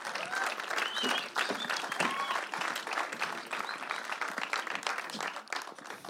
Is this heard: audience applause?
yes